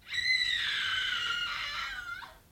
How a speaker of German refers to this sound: Was war das? Hörte sich an wie ein Schrei.